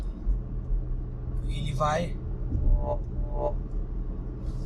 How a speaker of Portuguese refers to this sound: Então, esse barulho que vocês estão ouvindo é o é o assistente de faixas, né? Então eu conforme vou passando aqui de faixa,